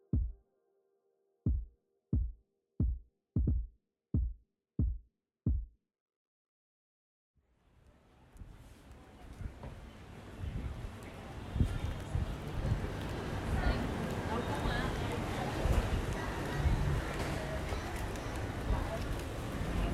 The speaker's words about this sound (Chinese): 刚刚其实听到的是在越南胡志明市雷潭东这条街上，是一个小日本区的一个声音哦。